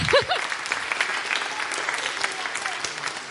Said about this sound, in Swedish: En applåd till er!